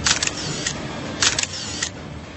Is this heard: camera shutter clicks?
yes